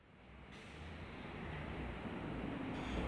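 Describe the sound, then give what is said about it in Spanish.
Quiet outdoor ambience of an empty street outside a house: a steady, faint low rumble and soft hiss that swells slightly, with no voices, footsteps or distinct passing vehicles. “Este es el sonido de la calle afuera de mi casa.”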